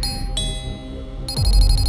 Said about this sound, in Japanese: 壁叩いたりしつこくチャイム鳴らしたり腐った食べ物郵便受けに押し込んだり